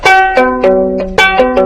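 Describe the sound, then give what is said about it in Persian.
A four-stringed instrument plays a short phrase of about seven sharply attacked, ringing notes in an uneven rhythm, fairly loud, with no voices. “مثل این ساز چهار تا سیب داره این سیم اولش ورش دارید و”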